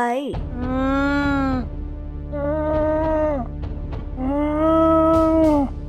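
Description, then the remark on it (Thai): A voice imitates an animal roar three times: long, drawn-out, strained calls, each about a second, steady in pitch and fairly loud, with short pauses between them. In the story being told, Rama roars in answer to a toad's question. “คางคกได้เอ่ยถาม เจ้าเป็นอะไรอ่ะ รามาก็ได้คำรามตอบไป”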